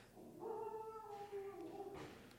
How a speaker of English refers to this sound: Okay, there's the Ben's barking at coyotes. He's out there with the coyote right now. He's got quite a quite a howl.